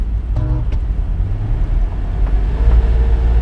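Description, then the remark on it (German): A Volga car cruising along the Autobahn after leaving a city northward through suburbs: a loud, steady low rumble of engine and tyres throughout, with a brief higher whine rising in the first second. No one speaks. “Der Wolga verließ die Stadt in nördlicher Richtung. Lange ging es durch Vororte. Schließlich erreichten wir die Autobahn.”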